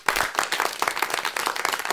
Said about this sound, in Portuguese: Uma salva de palmas!